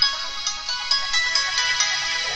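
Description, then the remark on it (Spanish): A bright, tinny ringtone from an iPhone-shaped toy cellphone belonging to a four-year-old girl plays a busy electronic melody with repeating chirpy notes, loud, with no talking over it. “Pero tenía un celular que la madre ama. Y es así como en forma de iPhone. Pero tiene ese mismo sonido todavía, madre.”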